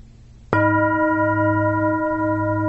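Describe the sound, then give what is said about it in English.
A single bell is struck once and rings on steadily, a bright, layered metallic tone that sustains with little fading. There is no talking, only quiet hiss before the strike. “such as, well here's a good example, material form, material form, this is the bell,”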